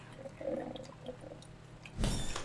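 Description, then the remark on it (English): A coffee maker brews with soft gurgling and bubbling, then a sudden burst of hissing steam and sputtering near the end. No one speaks. “Brew faster coffee, I need you.”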